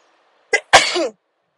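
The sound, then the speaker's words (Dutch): A single loud sneeze: a short sharp intake followed by a forceful burst that trails off into a brief voiced tail, with silence before and after. “Ik moet niezen.”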